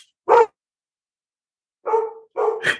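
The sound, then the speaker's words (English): Jake the dog barks three times, fairly loud: one sharp bark, a pause of over a second, then two more in quick succession. No one speaks. “it's like it's time to wrap the episode. Guest host, Jake the dog.”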